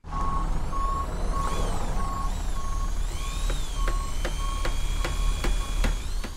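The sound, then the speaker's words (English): Building work noise: a vehicle's reversing alarm beeps steadily over a loud rumbling engine, and a series of sharp, evenly spaced clanks joins in partway through. No one speaks. “What's with all the noise? Building work.”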